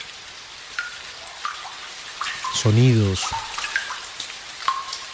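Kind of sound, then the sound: nature, water dripping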